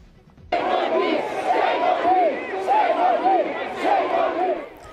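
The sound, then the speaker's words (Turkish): A large crowd of thousands at an anti-racism demonstration in London, England, marching to Parliament Square, chants and shouts, loud and sustained, with rising and falling voices blending into a dense roar after a brief quiet start. “Dünyaya yayılan ırkçılık karşıtı gösteriler büyüyor. İngiltere'nin başkenti Londra'da binlerce kişi parlamento meydanına yürüdü.”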